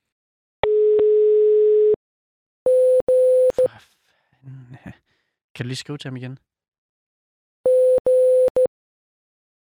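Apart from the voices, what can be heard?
telephone call tone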